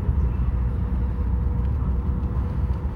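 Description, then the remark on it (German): Steady low engine rumble and road noise from inside a moving car as it turns onto the finishing straight of a race, continuous and fairly loud with no speech. “Ich springe hier gleich raus aus dem Auto.”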